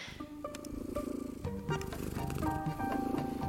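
A cat vocalizing, a steady rumbling, purr-like sound with a few brief tonal notes layered over it, continuous for a few seconds with no talking.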